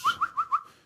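An exotic jungle bird calls with four quick, rising whistled notes in a steady rhythm, clear, with no other sounds around it.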